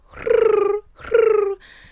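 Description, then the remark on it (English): A voice imitates a happy pigeon cooing in place of a sound effect: two rolling, trilled coos, each about half a second long, with a pulsing low pitch that slides slightly downward. The coos are moderately loud and there is no other talk. “Uh, uh, that's my happy pigeon sound because I could not figure out how to do a sound effect.”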